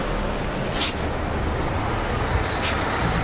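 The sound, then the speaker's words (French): A tour bus engine rumbles steadily, louder and heavier than a car engine, while the bus pulls to a stop beside a person on an old country road, with two sharp hisses of air brakes cutting through the low, heavy drone. “Le bus s'est arrêté à côté de moi.”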